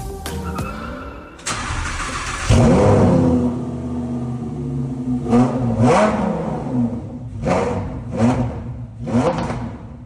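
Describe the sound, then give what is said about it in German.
A sporty car engine cranks and fires up, then settles into a deep idle before a series of sharp, loud revs blip up and fall back in quick succession. “wir starten mit dem Sound. Und das Auto der heutigen Folge, das klingt so.”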